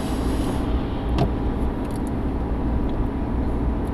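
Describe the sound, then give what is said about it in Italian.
Steady low rumble of a car driving on a winding, curvy road behind a truck it cannot overtake, with constant road and engine noise and a brief faint click partway through; no one speaks. “Sto guidando qui e ho un camion davanti che non posso superare perché questa strada è piena di curve e io sono frustrato.”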